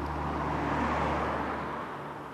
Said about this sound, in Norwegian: En enslig bil kjører rundt i den stille, iskalde natten.